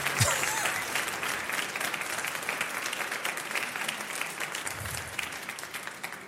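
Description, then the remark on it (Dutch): A concert audience at the AVRO Koerhuisconcert claps steadily for an orchestra after Britten's Simple Symphony, a dense, even wash of applause holding at a constant level for several seconds with no voices standing out. “U heeft een eerbiedige stilte voorgezeten hè, voor dit applaus.”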